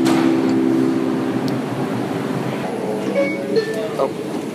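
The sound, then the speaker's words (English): A steady, loud rumble of a subway train, the 4 train to New Lots Avenue, with a low droning hum, faint metallic squeals, and indistinct voices murmuring in the background. “can I let you into the subway first?”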